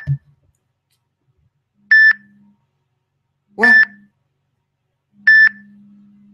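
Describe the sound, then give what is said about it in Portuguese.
A telephone line emits three evenly spaced electronic beeps, each about half a second long and roughly 1.7 seconds apart, clear, with a brief spoken interjection at the start. “Tá louco o telefone aqui.”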